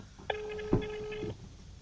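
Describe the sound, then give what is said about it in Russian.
As a call is dialed, a single steady telephone ring tone sounds for about a second, a flat mid-pitched buzz heard through a phone line, with a brief soft thump partway through and no talking. “Набираем.”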